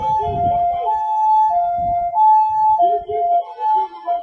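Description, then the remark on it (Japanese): A loud two-tone emergency siren alternates steadily between a high and a slightly lower pitch, continuous throughout, with low traffic rumble beneath it. “ちょっとこれは音がうるさいですね。すいません。どっちに曲がるんだい”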